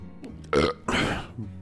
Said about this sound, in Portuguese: Só um segundinho aí, galera, que eu, vou ter que dar um arrotão muito sinistro.